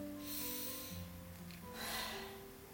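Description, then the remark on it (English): Airy breathing right against the microphone, two drawn-out breaths in succession with a soft hissing rush, heard alone with no one talking. “that's probably because I'm breathing again.”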